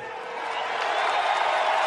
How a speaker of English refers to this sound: That's the crowd uh, reacting as the players finish their prayers and they get up.